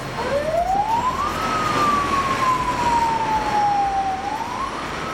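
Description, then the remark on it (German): A single siren rises quickly, then slides slowly downward and climbs again, cutting through the constant rumble and hiss of a busy city street full of traffic in Lagos. “Und das Leben, also der Puls des Landes, äh, das ist wirklich äh, Lagos. Da wohnen 11 Millionen Einwohner und ich finde, das hört man.”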